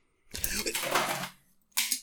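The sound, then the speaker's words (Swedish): A glass of tea slips from a sweaty hand, drops and hits a hard surface with a loud clatter and ringing tones, followed a moment later by a second shorter clink. “Det lät som att han tappade sin... Eh, Glas av något slag.”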